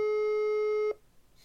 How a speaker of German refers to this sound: Ist ein Lautsprecher ganz laut? Ich glaube schon. Ich habe jetzt mal auf laut. Okay. Wir gehen nicht hin. Es klingelt, steht dran.